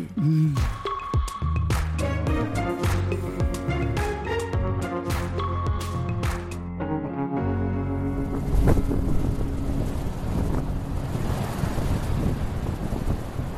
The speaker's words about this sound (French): Imaginez sous vos pieds des galets, dans vos oreilles un vent au-delà du décoiffant. Sous vos yeux une mer indomptable venant se fracasser sur des falaises, une eau crayeuse et des litres d'écume. Face à la mer, face à la Manche,